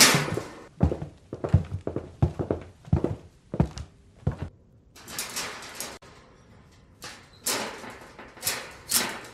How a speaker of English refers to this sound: People coming down the hall. I hid in the only spot available.